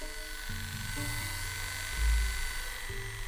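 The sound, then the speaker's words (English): Electric clippers shaving a male shelter cat's testicles to prep it for neutering in Juneau: a steady, fairly loud motorized buzz that shifts pitch slightly as the blades move through fur, with no talking. “shaving and prepping the testicles.”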